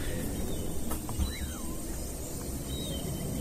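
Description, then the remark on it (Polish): Steady outdoor city ambience recorded in London: a constant low rumble of traffic fills the background, with a few faint, brief bird chirps above it and no voices. “I to jest dźwięk tego miasta.”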